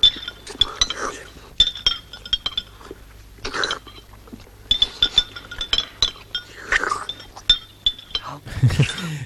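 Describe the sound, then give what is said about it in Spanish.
Spoons clink repeatedly against soup bowls in a quick, irregular rhythm, bright metallic taps, as several characters in a comic scene eat spoonfuls of the same soup, with faint murmuring voices and room noise underneath. “sobre las cucharadas de Sopayani”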